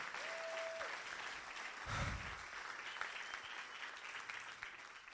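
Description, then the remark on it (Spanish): An audience applauds the Lord at the preacher's call in a dense, steady roar of clapping that holds for about five seconds, with a brief low thump midway and no voices over it. “si algo es digno de alabanza, si hay virtud alguna en esto, den un aplauso fuerte al Señor, vamos.”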